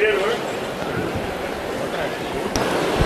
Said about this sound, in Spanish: Ahora mismo sí, el segundo golpe de martillo.